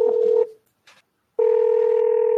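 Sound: dial-up modem dialing tones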